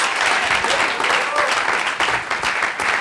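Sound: audience applauding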